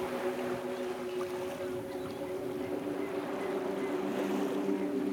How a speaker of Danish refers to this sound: stiger ombord på en lille båd, som sejler ham over til skibet, der ligger forude.